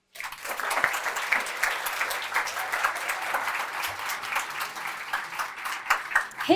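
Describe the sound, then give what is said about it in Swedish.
Sustained audience applause welcoming a guest at a talk event, a dense wash of many hands clapping at steady loudness for several seconds, with no talking over it. “Ge henne en varm applåd.”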